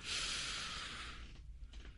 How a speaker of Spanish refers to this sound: van a mantenerse en un lugar cómodo, quietos, se pueden recostar o pueden estar sentados como ustedes gusten y eh, van a respirar profundo, inhalan profundo.